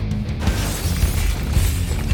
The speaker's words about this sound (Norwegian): og så innimellom så drev de og hadde sånn sinna sex med hverandre og drev og knuste glass og tallerkener. Bare feide unna alt som var på bordet